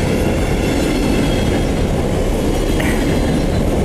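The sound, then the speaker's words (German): A slow freight train rumbles past, a loud, steady roar of wagons rolling on rails with faint clacking and a brief metallic squeal, no voices. “Ah, ah jetzt kommt ein Zug.”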